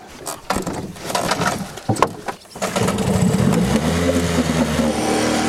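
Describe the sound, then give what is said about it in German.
The engine of a motorboat not approved in the EU drones steadily on the Danube toward its mouth. It starts with some clattering and bumps before settling into a loud, continuous hum with a low harmonic tone. “Also wir fahren mit einem äh, nicht zugelassen, in der EU nicht zugelassenen Boot.”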